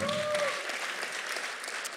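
A crowd applauds with dense, steady clapping that holds at an even loudness for about two seconds, opening with a brief tonal whoop over the clapping.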